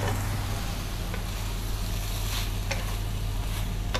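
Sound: stirring a mixture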